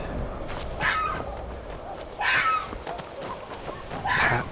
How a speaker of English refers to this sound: howling of things. A fox running around.